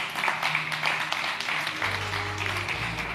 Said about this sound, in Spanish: Colócate de pie, dale un aplauso bien fuerte al Señor.